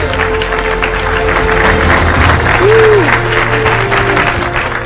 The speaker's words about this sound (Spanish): Bien, aplausos. Gracias, argentinos. Aplausos. Ahí va, muy bien.